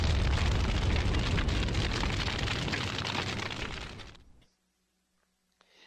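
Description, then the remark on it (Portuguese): A massive MOAB bomb blast roars at full strength, a dense rumbling boom with crackling debris that rolls on for about four seconds before fading out abruptly into silence. “Solta a Moab, fogo no, fogo no muturo.”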